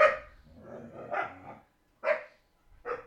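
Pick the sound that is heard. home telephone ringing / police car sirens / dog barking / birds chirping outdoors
dog barking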